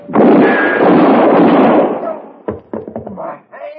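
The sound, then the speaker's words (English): A loud gunshot booms and rolls off in a long echo, followed by a few sharper, quicker cracks and knocks with what sounds like brief voices mixed in. “That's one way to stop having to pay off a bet, Marquette. Shoot the winner in the back.”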